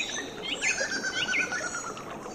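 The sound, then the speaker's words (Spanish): Birds chirp intermittently in a dim, dense forest, their high, thin calls rising and falling over a soft, steady background hiss. No one speaks. “Los pájaros piaban intermitentemente.”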